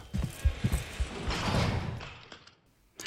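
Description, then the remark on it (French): A heavy door is flung open violently, letting in a group of guards: several metallic clunks and knocks from the latch, then a loud scraping sweep as it swings, fading out, with a faint click at the end. “La porte s'ouvrit violemment, laissant entrer un groupe de gardiens menés par Ahmed”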